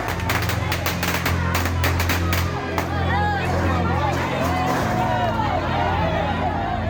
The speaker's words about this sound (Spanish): Los chilenos gritan slogans nacionalistas y xenófobos.